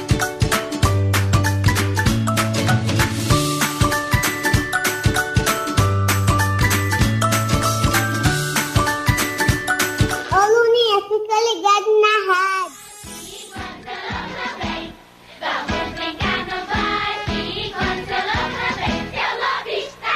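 A bright, bouncy children's song plays loudly and up close, with a steady beat and chiming melody, then a sung vocal line enters over lighter, plucky accompaniment.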